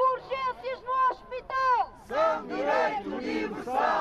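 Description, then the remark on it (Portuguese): About 40 warmly dressed protesters chant in the cold outside a hospital door, rhythmic shouted phrases in unison with strong harmonic voices, building into a louder, denser crowd chant in the second half. “À porta do hospital, 40 pessoas bem agasalhadas vão aquecendo a voz, assim.”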